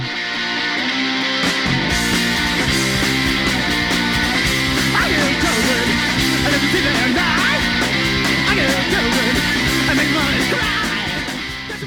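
A loud, dense punk rock track with distorted guitars and driving drums, a raw voice shouting over the band throughout at a steady, aggressive level.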